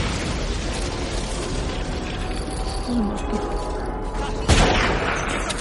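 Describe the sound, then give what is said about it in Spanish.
Swarms of fighter planes in aerial combat in the sky, heard from a trench: a dense, steady roar with faint whining engine tones drifting through it, then one sharp explosive burst near the end. No voices. “Desde la relativa seguridad que ofrece mi trinchera, puedo ver auténticos enjambres de aviones cazas luchando en el cielo. ¿Podéis oírlos?”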